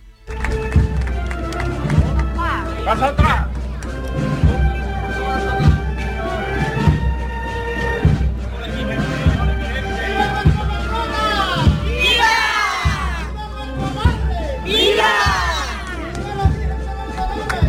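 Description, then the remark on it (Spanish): A dense outdoor crowd at the procession of the Virgen de los Dolores of Fuente Vaquero along Avenida de Andalucía murmurs and shuffles steadily, with loud shouted cheers of "Viva" rising above it now and then, especially toward the end, as the procession passes. “cuál es la melodía de esta bellísima procesión por la avenida de Andalucía.”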